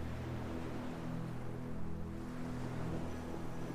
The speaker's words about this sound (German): Und du beobachtest die Wellen, wie sie kommen und gehen. Du fühlst dich richtig wohl an diesem schönen Ort am Meer. Verbinde nun deinen Atem mit dem Rauschen des Ozeans.